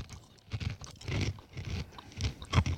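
Crunchy chewing of small sugar-coated roasted almonds and nuts from a Christmas market in Germany, taken from a bag, a run of repeated crisp bites and grinding crunches in an uneven rhythm, fairly soft overall with a sharper crunch near the end and no talking.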